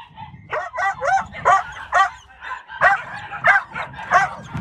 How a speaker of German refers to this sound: Beim Abschied bellt er uns ziemlich aufgeregt hinterher, als wolle er sagen, Hallo, du hast mich vergessen.